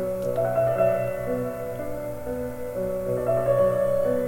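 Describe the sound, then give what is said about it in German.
A steady piano intro plays on its own, sustained chords and melody notes ringing and shifting every second or so, moderately loud and continuous with no voices. “Ich mag ja diese Klavierintros. Ja, eben. Klavier höre ich ja schon, ne?”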